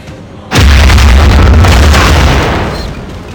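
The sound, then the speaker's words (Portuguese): A sudden loud, deep boom hits after a brief quiet moment, then a heavy rumbling roar that slowly fades: British warships firing naval artillery, their shells exploding as they concentrate fire on a battleship. No voices. “Gradualmente, as belonaves britânicas foram concentrando os disparos. Não demorou para que a ponte de comando do Bismarck fosse atingida”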